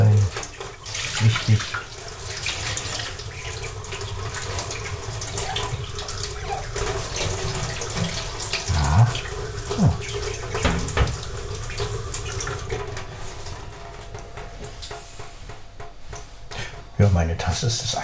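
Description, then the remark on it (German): A kitchen tap runs steadily into the sink as a cup and spoon are rinsed, with occasional soft knocks and clinks breaking through the continuous splashing rush. “Tasse und Löffel, sonst habe ich eigentlich nichts an Geschirr hier.”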